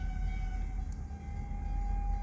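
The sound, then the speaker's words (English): A steady, sustained horn-like tone hangs over a deep continuous rumble as an approaching train sounds its horn, loud and constant with no voices. “This train coming is let me know that I've been talking too much.”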